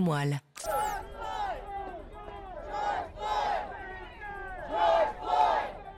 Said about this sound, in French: Le nom de George Floyd scandé par la foule à l'arrivée de son cercueil mardi transporté par une calèche, une foule venue dire aussi que les choses doivent désormais changer.